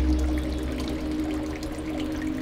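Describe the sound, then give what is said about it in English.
Water gushes from an illegally opened fire hydrant in Chicago during a heat wave of over 100 degrees, a heavy, continuous rush with a steady roaring spray and deep rumbling undertone that holds evenly from start to finish, with no voices. “Others illegally opened fire hydrants to provide a little relief and a little joy.”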